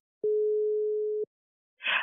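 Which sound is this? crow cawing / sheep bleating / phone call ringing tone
phone call ringing tone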